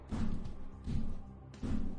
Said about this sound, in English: still banging on the door, trying to get in.